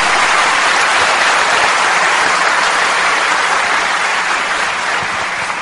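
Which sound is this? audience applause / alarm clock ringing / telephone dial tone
audience applause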